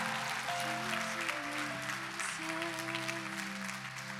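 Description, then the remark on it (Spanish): A church audience applauds Jesus Christ steadily in a dense, continuous wash of clapping, with sustained musical tones, likely an organ or keyboard, playing underneath throughout. “Denle un fuerte aplauso a Jesucristo.”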